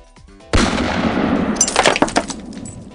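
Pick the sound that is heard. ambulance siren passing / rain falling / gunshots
gunshots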